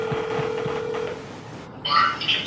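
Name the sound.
telephone keypad dialing tones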